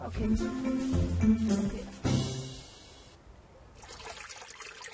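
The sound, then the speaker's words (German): Water trickles and splashes steadily at a sacred spring, fairly loud, with indistinct human voices over the first half before the flow continues more softly on its own. “An dieser heiligen Quelle müssen wir uns reinigen, bevor wir den Palast besuchen.”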